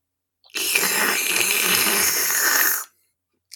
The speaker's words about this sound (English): Uh, so I'm excited to give this a taste and see if this fall is off to a good start. Sipping noises. Sipping noises.